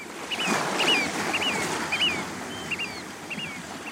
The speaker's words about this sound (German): Die Tür wird noch zugemacht, weil draußen tobt der Wind.